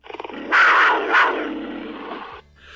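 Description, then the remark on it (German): A small, frightened lion screams loudly, a harsh, rasping cry lasting about two seconds, preceded by a brief run of quick pulsing grunts, with no talking. “Der Löwe, der schaut ganz erschrocken und schreit.”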